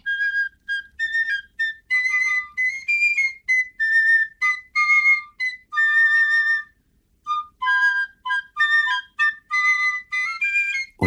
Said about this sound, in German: Der Harlekin spielte weiter und setzte sich wieder in Bewegung. Er nahm das Piccolo, suchte die Melodie,